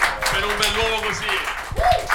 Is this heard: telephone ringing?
no